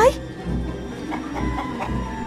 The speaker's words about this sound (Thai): เพียงเท่านั้นข้างนอกพระราชวังพระราชาไก่โต้งก็ได้คันไม่หยุดจนพระราชินีต้องชะโงกหน้าออกมาจากหน้าต่าง โอ้ยเงียบนะ เจ้าไก่โต้งแก เงียบเดี๋ยวนี้เฮ้ย